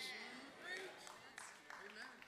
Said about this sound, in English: Thank you for the three golf claps like we at the US Open.